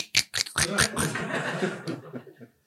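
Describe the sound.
A voice imitates a diaper crinkling with a few quick, rustly bursts, then slides into breathy, chuckling vocal noises for a couple of seconds.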